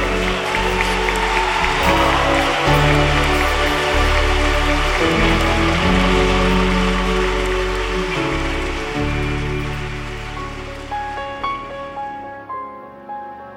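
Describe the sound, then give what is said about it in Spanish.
An audience applauds the Lord loudly in a dense, steady roar of clapping over sustained keyboard chords, holding for about ten seconds before the clapping thins and fades while the music lingers. “Puede aplaudirle al Señor fuerte.”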